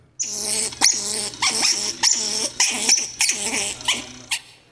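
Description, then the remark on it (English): An angry squirrel scolds with a rapid string of harsh, raspy chattering barks in about eight closely spaced bursts, fairly loud, with no talking. “the correct answer is B, it's a squirrel. All right, a very angry sounding squirrel”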